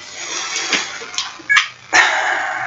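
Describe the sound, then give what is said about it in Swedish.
A small dog, Ludde, barks several times in short, irregular, fairly loud bursts with a couple of sharp yips. He sits in the owner's lap, barking at people walking outside the dining room window. No one speaks. “Som ni hör så sitter Ludde i mitt knä och skäller på folk som är ute och, och går utanför matrumsfönstret.”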